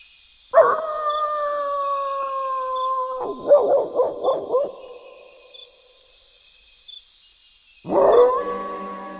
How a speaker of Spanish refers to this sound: El cachorro solo podía ladrar. La noche avanzaba y los cuatro perros de edad, agrupados a la luz de la luna, continuaban llorando a lo alto su doméstica miseria.